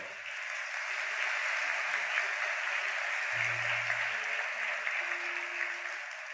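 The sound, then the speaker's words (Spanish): Steady, dense applause from a crowd giving themselves a round of applause, a continuous wash of clapping that holds at an even level for several seconds with no voices over it. “Dense un aplauso a ustedes a sí mismos.”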